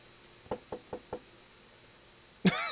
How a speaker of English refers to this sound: What sound? Was there like a knocking sound? Oh, that's probably I'm tapping my foot.